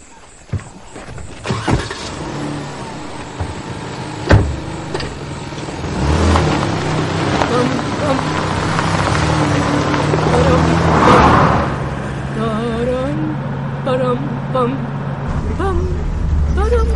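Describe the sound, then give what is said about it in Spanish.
A few sharp thuds like car doors shutting as people get into a car, then an engine starts and the car pulls away along a two-way road, its low motor rumble swelling and holding steady, with faint indistinct voices late on. “Suben al coche.”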